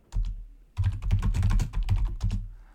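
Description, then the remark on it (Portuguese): A cardboard egg carton, shown as a lightweight filler for wattle-and-daub walls, is handled, giving a quick flurry of light tapping and scraping clatter in two bursts with a brief pause between, with no voices. “Uma solução que você pode fazer para reduzir o peso, que esse negócio de ficar amassando bolinha de papel ninguém merece, é aquela cartela de ovo.”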